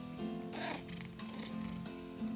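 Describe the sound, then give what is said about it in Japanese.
A cat named Giovanni meows in response, a couple of drawn-out, tonal calls that rise and fade, heard fairly quietly with no talking over them. “はい来たねはいジョバニが来ましたはいここにいるねお返事上手だねね”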